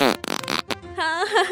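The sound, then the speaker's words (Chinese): A voice imitates a fart with buzzy, wavering vocal blurts: a long raspy one, a short choppy burst, then a drawn-out, rising, tuneful trumpeting noise. “不好意思，我我刚才不小心放屁了。”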